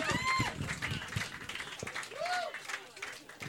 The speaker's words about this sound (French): On applaudit le disque, c'est le départ.